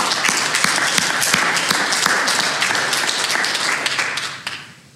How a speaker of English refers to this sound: How many over 30 years? Wow. Praise God. Let's give a hand clap for that.